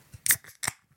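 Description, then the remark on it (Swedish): A can of cheap beer is cracked open: a sharp metallic snap followed by a second crisp burst of hissing fizz, both brief, with quiet surroundings and no talking. “Den kostar 9,90 och den låter så här.”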